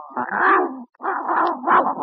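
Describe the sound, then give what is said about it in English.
A dog named Daisy vocalizes in two drawn-out, whiny bursts separated by a brief pause, loud and tonal with no one talking. “Well, hello, Daisy, good dog.”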